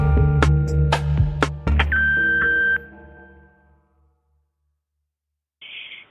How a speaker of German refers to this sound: Wir sind gerade nicht da, aber ihr könnt uns eine Nachricht hinterlassen. Zehn Minuten habt ihr Zeit und reden könnt ihr nach dem Piepston.